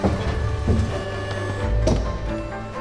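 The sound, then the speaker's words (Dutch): Elevator doors slide and thump amid a steady low mechanical hum as the lift runs, with a few clunks and no voices. “De lift in.”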